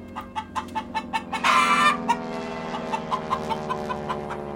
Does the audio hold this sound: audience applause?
no